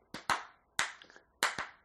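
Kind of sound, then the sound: crowd, hand clapping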